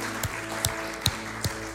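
Audience applause forms a steady, dense wash of clapping, with a few sharper claps popping out at roughly even intervals. It holds at an even, moderate level with no talking.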